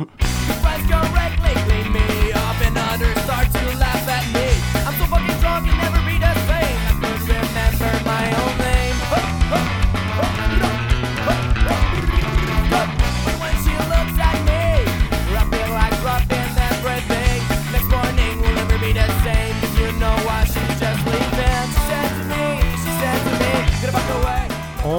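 A loud, dense ska punk track plays continuously at full energy, with driving drums, bright offbeat guitar and horn-like stabs filling the whole stretch without any talking.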